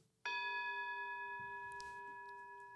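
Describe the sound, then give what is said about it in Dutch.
A single gong strike, signalling the end of a conversation, rings out with a sharp onset and a bright, sustained metallic tone full of steady overtones, fading only slightly as it resonates. No one speaks over it. “Als de gong gaat, is het gesprek voorbij.”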